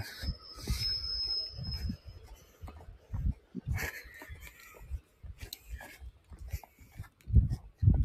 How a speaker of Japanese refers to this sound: ちょっと電車の音が入ってしまいましたけども、はい。生々しい自然の音と、電車の音と、そして私の声という感じで、今回締めさせていただこうかなと思います。